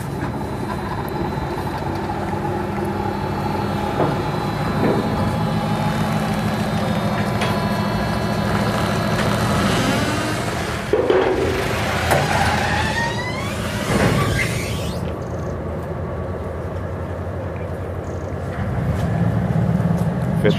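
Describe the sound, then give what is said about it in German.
A steady, low engine drone rumbles throughout, with scattered mechanical clanks and a brief rising whine midway, as a ferry's motor keeps running and the ferry departs again for the other side of a crossing of about 100 to 200 meters. “Da fährt er wieder ab.”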